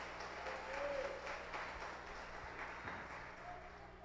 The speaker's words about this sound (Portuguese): Pode aplaudir que é para Jesus.